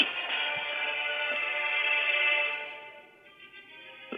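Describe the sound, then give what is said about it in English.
A steady electronic phone ringtone for an incoming call plays with bright, sustained tonal harmonics, holding level for a few seconds and then softening slightly toward the end, with no voices over it. “Is that, I, am getting a phone call.”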